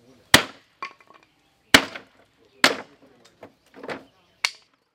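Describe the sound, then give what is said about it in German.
A man smashes apart a small wooden spirit house with a hammer: four short, hard strikes at irregular intervals, each followed by splintering and rattling debris, with lighter knocks in between and no voices. “Mit kurzen, kräftigen Schlägen zerstört er das Geisterhaus”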